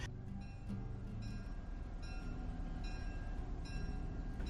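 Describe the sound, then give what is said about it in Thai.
A passenger train rolls steadily along the rails, a loud, continuous low rumble with faint metallic ringing tones layered on top, with no voices. “คนใต้ในสมัย 20 ปีที่แล้วเนี่ย เราใช้รถไฟสายใต้เป็นหลัก”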